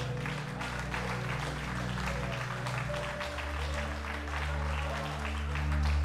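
An audience applauds Jesus steadily for several seconds, a dense wash of many clapping hands at an even, fairly loud level, with a sustained low keyboard chord droning underneath.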